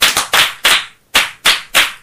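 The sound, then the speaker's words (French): A short burst of hand clapping for a pupil in class, about six sharp, bright claps in an uneven rhythm with a brief pause midway, loud and with no talking over it. “Ah, un bravo pour elle.”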